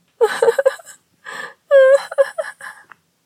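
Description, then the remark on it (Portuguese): A girl sobs and cries in short broken bursts as Cinderella runs to her room, catching her breath with gasps between a wavering, whimpering wail, fairly loud, then trailing off into quieter sniffles. “Cinderela correu para o quarto chorando porque não tinha vestidos bonitos.”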